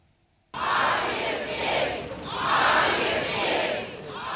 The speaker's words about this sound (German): Alexei rufen sie. Applaus für einen Mann, der ihnen hier Hoffnung gab.